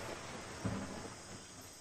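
Steady rain hisses throughout, with a brief low rumble of thunder swelling near the start before fading back under the downpour. Fairly quiet, with no voices.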